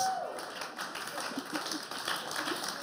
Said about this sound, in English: Oh, that got an applause. Right out the gate.